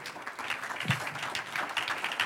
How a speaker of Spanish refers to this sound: Un aplauso al Señor.